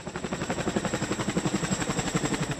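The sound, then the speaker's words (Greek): Rapid, rhythmic thudding of Greek and Egyptian attack helicopter rotors taking off from the deck of the Egyptian helicopter carrier Gamal Abdel Nasser during the Medusa 12 exercise near Alexandria: a steady loud chopping pulse with engine whine, continuous, with no voices over it. “Από εδώ, όπω βλέπετε, απονιώνονται επιθετικά ελικόπτερα και των δύο χωρών, τα οποία συμμετέχουν στη μεγάλη ελληνοαιγυπτιακή αεροναυτική άσκηση Μέδουσα 12.”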